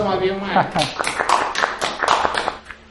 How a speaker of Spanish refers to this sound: Una ovación de pie.